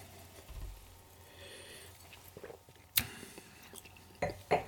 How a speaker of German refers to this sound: Entschuldigung fürs Schmatzen. Ja, nicht verkehrt.